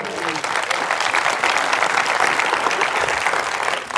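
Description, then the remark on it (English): A church audience claps their hands to the Lord in steady, dense applause that stays loud and even for the whole stretch, with no voices standing out above it. “If you agree with that, clap your hands to the Lord today.”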